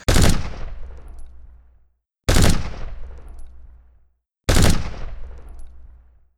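Three loud gunshots ring out at an even, unhurried pace, each a sharp blast followed by a long, rumbling echo that fades before the next shot. No voices are heard.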